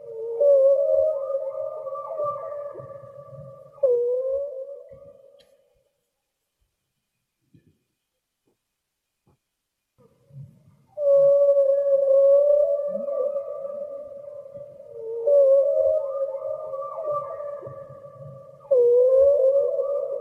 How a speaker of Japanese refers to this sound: これはクジラが歌う声なんですけれども